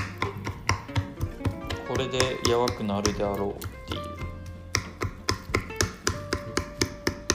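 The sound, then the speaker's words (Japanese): A fork repeatedly jabs into cut chicken thigh meat, producing a steady run of sharp, clicky taps against a plate or board, heard under ongoing talk from a voice. “食べる時のねこのちょっと硬い繊維とかが残らないように気持ちフォークでいつもこうやってカタカタやってます”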